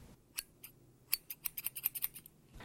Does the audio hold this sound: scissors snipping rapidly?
yes